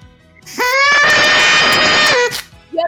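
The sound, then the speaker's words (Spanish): A party blower horn (matasuegras) is blown once at a birthday celebration, a loud, buzzy, reedy honk that swoops upward at the start and then holds steady for about two seconds before cutting off. “Ah, ¿Tú sabes que esto se le llama matasuegras?”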